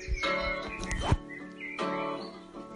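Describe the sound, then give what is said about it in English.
Birds chirp and sing outdoors in the air and in the trees, their calls layered over steady, sustained tones in the background. Nobody speaks. “Now they're singing this outside, so you've even got the accompaniment of the backing vocalists of the birds in the air and in the trees.”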